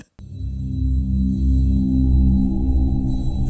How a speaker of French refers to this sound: Et pour en parler, et là, c'est pas des blagues, j'y avais dit qu'il y aurait son thème, il y a son thème.